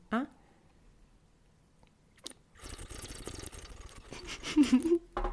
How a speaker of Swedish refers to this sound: så det hon gör är att hon tar en klunk och sen är det ju som att du suger mm, inåt. Mm, drar in det. Mm. Som att du jag suger på ett sugrör.